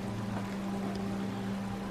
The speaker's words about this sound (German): Lausche noch einmal den Wassermassen, wie sie wild und kraftvoll ihrem Pfad folgen unbeirrt und ruhelos. Nichts anderes ist zu hören. Keine Glocken, keine Vögel, nur der tobende Strom.